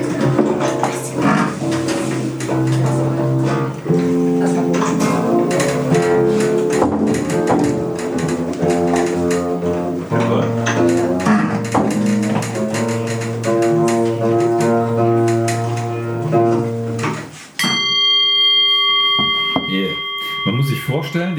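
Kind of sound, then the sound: signal or alarm, gong ringing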